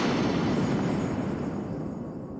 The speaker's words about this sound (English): All of a sudden, there was a loud crash of thunder, and a shining light began to slice through the clouds.